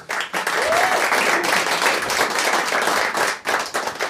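A live audience at a live show bursts into sustained applause for a band T-shirt, a dense crackling wash of many hands clapping at once for about four seconds, with a faint whistle or voice briefly rising through it.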